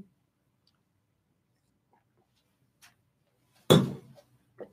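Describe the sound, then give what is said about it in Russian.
Someone drinks water: after a near-silent stretch, a single sharp glassy clink and a short burst of noise, followed by a few faint, soft sounds. “сейчас попью воды”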